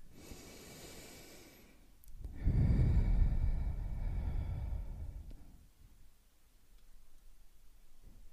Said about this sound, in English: This happens when the volume of the rib cage expands and opens towards the sides of our bodies. This is what people do usually when uh, you think of breathing deep. You take a deep breath and your rib cage gets bigger.